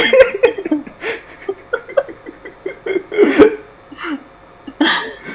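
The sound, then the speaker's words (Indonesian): A person's voice imitates a horse with a run of quick, choppy, nasal whinnying bursts, fairly loud, broken by short pauses over about five seconds. “cuma kayak suara kuda gitu”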